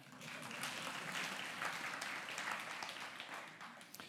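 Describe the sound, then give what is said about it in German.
An audience applauds with dense, steady clapping that holds evenly for several seconds before tapering slightly at the end. “Kleinen Applaus”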